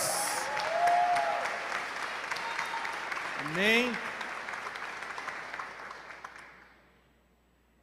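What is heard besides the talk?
audience applauding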